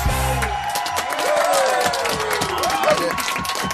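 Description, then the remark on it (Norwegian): A live audience claps and cheers loudly, dense steady applause with whoops and shouts rising over it, a low musical tone fading out in the first half second. “Da klapper vi hendene og setter i gang.”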